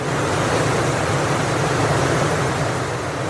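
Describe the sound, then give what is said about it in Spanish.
A steady, dense roar of rushing river rapids, heard while rafting downriver in an inflatable boat with an instructor, fills the whole stretch at a constant loud level with no voices or breaks. “En este recorrido nos lanzamos río abajo acompañados de un instructor que nos hará tambalearnos a bordo de una lancha neumática.”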